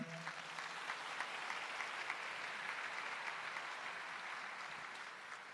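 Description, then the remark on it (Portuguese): A crowd applauds Our Lady (Nossa Senhora) steadily, a dense wash of many hands clapping at an even, fairly loud level for several seconds without letting up. “Dá uma salva de palmas para ela.”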